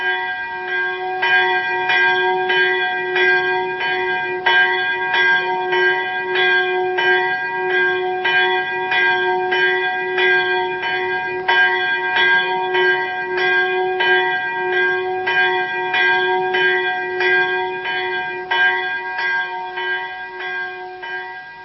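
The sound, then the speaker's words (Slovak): A church death knell tolls on Christmas morning, announcing to the whole village the death of Ondráčka; one bell struck in steady, fairly quick strokes, its bright ringing overtones hanging and overlapping throughout. No voices are heard. “Ráno na Božie narodenie umíráčik oznámil celej dedine smrť zbožnej Ondráčky.”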